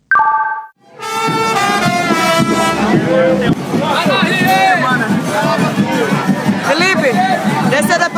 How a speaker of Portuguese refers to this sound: Enquanto isso, coloque seu headphone, pegue um lencinho para segurar as lágrimas e fique com o som dos blocos de carnaval do Recife.